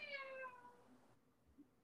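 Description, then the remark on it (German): A single drawn-out meow from the cat Snoopy, with a strained, creaky tone like a slowly opening door, loud, fading out after about a second into quiet. “Snoopy, du hörst dich anscheinend an wie eine Tür.”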